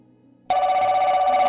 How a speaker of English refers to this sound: The phone rang. I jumped.